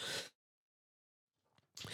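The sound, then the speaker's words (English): Two loud, harsh coughs separated by about a second and a half of silence, with a soft intake of breath just before the second cough. No talking. “I'm going to cough, hang on.”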